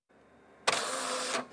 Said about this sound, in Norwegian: Ut fra skriveren kommer merkelappa full av informasjon om matvaren. Her ser du, her er det jo veldig mye innhold. Det er en bagett, og alt skal jo på etiketten.